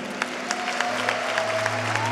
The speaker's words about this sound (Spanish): Sí, dale un fuerte aplauso a él.